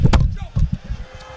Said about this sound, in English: Auburn head coach Bruce Pearl joining us. Joke, he says as he slams the headset down and walks off.